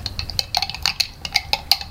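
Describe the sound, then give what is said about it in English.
A spoon stirs briskly, mixing fiber into a glass of water, tapping out about a dozen quick, bright, high-pitched clinks in an uneven rhythm over a soft low hum, with no talking. “Get a glass of some water in and get some spoons there and you can try it.”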